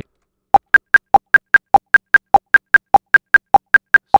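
A steady, fast electronic metronome in the Reaper music software clicking alone after its time signature is set to 8, about five crisp ticks per second, with a lower-pitched accent click falling on every third beat in a repeating pattern.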